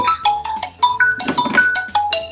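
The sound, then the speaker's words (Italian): An alarm clock rings with a bright electronic jingle, a quick run of high, clear tones repeating in a lively melodic pattern, fairly loud with no voices. “È una sveglia?”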